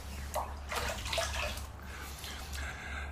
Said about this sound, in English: He slurps coffee in front of me radio.